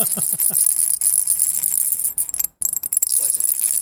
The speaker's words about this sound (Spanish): Es que hago círculos y nada más quiero que se escuche como. Bueno, escuchan como un, revoloteo, un cascabeleo.